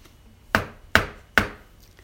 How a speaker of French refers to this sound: Ensuite, il ferma la porte, et s'alla coucher dans le lit de la mère Grand en attendant le petit chaperon rouge qui quelque temps après vint heurter à la porte.